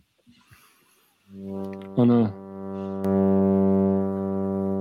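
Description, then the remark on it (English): A brief spoken phrase gives way to a loud, steady sawtooth synthesizer drone, played without distortion or drive through a filter in drone mode, rich in even harmonics, with a bright filtered burst midway before the buzzy tone settles and swells slightly louder. “So without any distortion, uh, drive and just a filter in drone mode”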